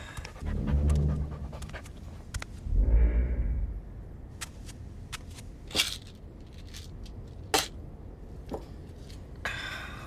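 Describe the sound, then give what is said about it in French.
A dog pants in two heavy, breathy bursts, followed by quieter snuffling and brief clicks and rustles against a low background rumble. “Mon chien.”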